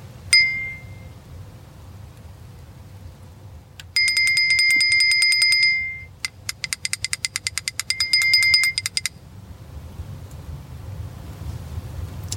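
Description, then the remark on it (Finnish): A homemade 'big brother annoying bell' gadget, made by the youth of Vasarakansa, rings shrilly: first a brief tone, then a sustained buzzing ring, followed by rapid rattling strikes and another steady ring, over a low continuous hum with no talking. “Vasarakansan nuo, nuoriso oli keksinyt tämmöisen K- tota, kätevän isoveljen ärsytyskellon.”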